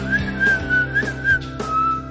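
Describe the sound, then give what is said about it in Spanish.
A person whistles a short melody, the clear tone gliding and wavering between notes, fairly loud over faint background music. “Y lo hizo hasta el silbido.”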